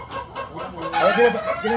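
A rooster crows loudly partway through, its strained, wavering call rising over a busy background of clucking fowl, with other birds audible throughout.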